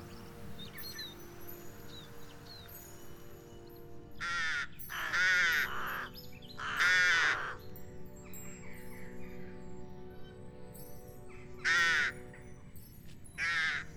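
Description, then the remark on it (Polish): Rook caws ring out in separate bursts, a few grouped close together then more after a pause, fairly loud over a steady low background hum with faint small birds chirping. “Bardzo zimowym ptakiem wydaje mi się gawron, chociaż żyje w Polsce przez cały rok, ale z gawronami dzieje się taka ciekawa rzecz, mianowicie nasze e, gawrony, polskie gawrony, które zakładają gniazda w naszych parkach, odlatują na zachód Europy albo”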